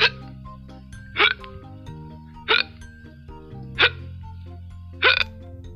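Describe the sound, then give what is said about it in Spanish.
Five loud, abrupt, uncontrollable hiccups from a person at a meal after eating very spicy food, spaced evenly about a second apart, each a sharp gulping burst, over a steady background of soft music. “Repentinamente me dio un fuerte, ruidoso e incontrolable hipo.”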